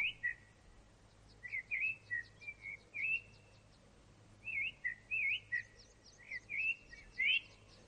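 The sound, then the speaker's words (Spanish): A caged bird chirps in quick bright bursts, about a dozen warbling notes grouped in two runs with a short pause between, clear over a faint low hum, no voices. “mira a un pájaro enjaulado.”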